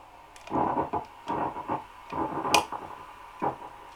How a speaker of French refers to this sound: Ça fait des beaux vents. Bon voilà, c'est la machine à vent. C'est une pédale que j'ai mal fabriquée, du coup qui fait trop de bruit